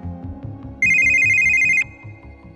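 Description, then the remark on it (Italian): A mobile phone rings with a single loud, steady electronic tone lasting about a second, cutting sharply over a low, pulsing musical backdrop that continues after it stops. “Una semplice cella telefonica è quella che ha agganciato un telefonino che improvvisamente si è riacceso dopo oltre due mesi di inattività.”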